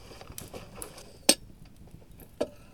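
A few soft metallic taps, then a sharp clank as a coffee pot is set down in the fire inside a stove and a duller knock as the stove door shuts, with no talking.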